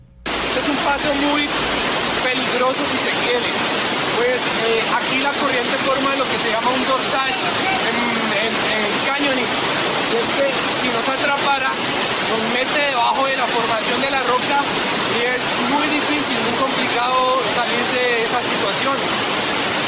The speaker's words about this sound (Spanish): expliquémosle a la gente que esto es en el cañón, por lo tanto se escucha el agua de fondo, pero veamos lo que ocurría en este momento del cañón de Chirajara.